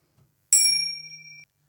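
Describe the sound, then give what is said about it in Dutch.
A single bright bell ding rings out with a sharp metallic strike, its clear high tone sustaining for about a second before cutting off. No one speaks. “Willen jullie even op het plusje of op het belletje drukken, hangt er vanaf of je in Apple zit of in, eh, in Spotify zit.”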